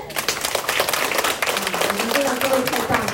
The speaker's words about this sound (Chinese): 不管是普渡也好，或是台风天也好，都没办法消灭大家那种想要学习那种热情的心。光这个理由来给自己来一个热烈掌声。